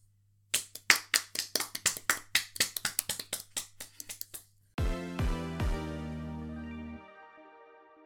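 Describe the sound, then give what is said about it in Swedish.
A short burst of crisp hand claps, about twenty in quick, slightly uneven succession, then a few loud sustained musical chords that ring out and stop. No talking. “Mm är det en applåd på det.”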